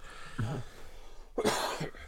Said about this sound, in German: Ein Huste!